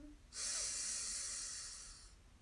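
A single deep, drawn-out breath, a loud airy rush lasting nearly two seconds with steady intensity, then tapering off, done as a deep breath in and loud exhale in a breathing exercise. No one speaks.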